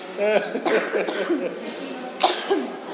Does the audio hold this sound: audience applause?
no